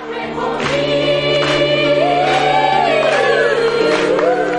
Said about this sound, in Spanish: Todos los clientes del restaurante cantan y tocan las palmas.